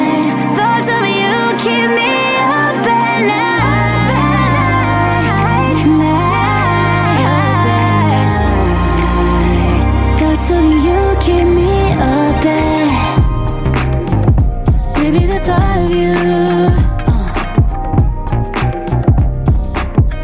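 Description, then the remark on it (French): An electro-pop song plays loudly and steadily on the radio station Dynamique at 21:42, with thick sustained synth bass notes and bright layered synths, turning choppier and more percussive toward the end. “À 21h42 sur Dynamique, le son électro-pop”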